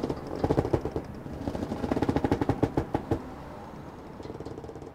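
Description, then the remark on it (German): A tarpaulin on the flat launch Adele, a historic boat probably from around 1900, moored with historic ships at a jetty by the Magellan-Terrassen, flaps hard in the wind, rapid irregular cracks and slaps coming in gusty bursts, then easing off to a softer rustle at the end. “Ich passiere die flache Barkasse Adele, wahrscheinlich Jahrhundertwende, flappende Persenning.”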